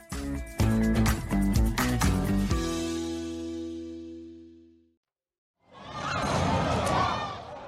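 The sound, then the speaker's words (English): After a short musical sting fades to silence, a dense protest crowd in Fort Lauderdale, US, erupts in loud, chaotic shouting and screaming for a couple of seconds as police fire tear gas. “These are the scenes in almost every state in the US enormous crowds, no room between them, shouting, singing, and when the police fire tear gas, as in here at Fort Lauderdale, screaming.”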